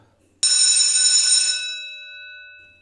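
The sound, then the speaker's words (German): A loud bell rings once, starting abruptly with a bright, clattering burst that holds for about a second, then fades into a lingering metallic ring. No voices. “Es klingelt, klingelt gleich.”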